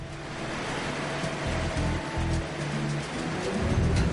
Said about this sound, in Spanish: Cuando el viento sopla sobre la superficie oceánica, surgen olas. Estas olas contienen mucha energía que podemos utilizar.